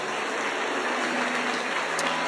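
A crowd applauds loudly and steadily for a man who has helped the speaker, a dense wash of clapping that holds at an even level for the whole couple of seconds, with no voices standing out.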